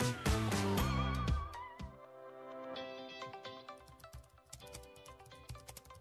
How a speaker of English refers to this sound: What are you typing? I'm looking for a church to watch online this Sunday.